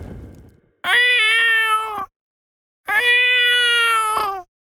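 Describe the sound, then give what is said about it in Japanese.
A human voice mimics a cat, giving two long, drawn-out meows separated by a short pause, clear with no other sounds around them. “ああ、その声は確かに猫じゃ。”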